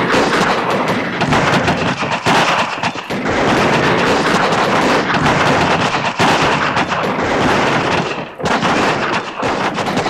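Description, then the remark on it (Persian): Sustained, dense gunfire from a volley of 750 soldiers seated in three rows firing at once on a barracks square, a loud continuous crackle of overlapping shots with brief dips between bursts, without any voices. “750 سرباز در سه صف نشسته و آتش کردند. دود حاصل از شلیک میدان سربازخانه را تاریک کرد.”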